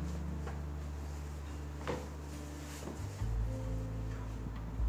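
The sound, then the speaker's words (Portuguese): A chair takes someone's weight with a few soft wooden knocks and shifting creaks over a low, steady background hum, moderately quiet, with no voices. “Ao sentar na, na cadeira, você se sente um pouco confortável, mas confuso com isso tudo.”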